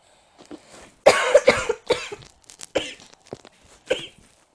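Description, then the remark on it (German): A burst of several harsh coughs in quick succession from a person who still has a slight cold and recently had Corona, the loudest at the start, followed by a few weaker coughs trailing off. No talking. “Das ist viel zu viel Huste.”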